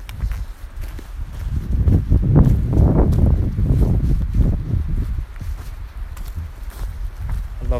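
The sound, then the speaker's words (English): A steady, loud rushing of wind through trees along a hiking trail fills the scene, a deep continuous roar that swells and eases, with irregular footsteps crunching. “It sounds like road traffic, it sounds like a river, but it's just the wind going through the trees.”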